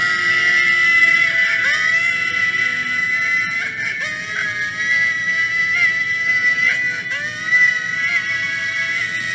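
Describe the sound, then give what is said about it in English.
A grating, high-pitched alien howl wails on continuously for several seconds, loud and shrill with harsh overtones and brief sliding pitch bends, and no one speaks over it. “Rom actually saves uh, Quark with that horrible Ferengi howl. This is the most grating noise I've ever heard.”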